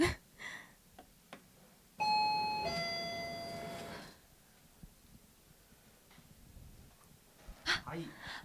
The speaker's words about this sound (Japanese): はいあこちらですねはいじゃあインターホン押してみてもいいですかドキドキする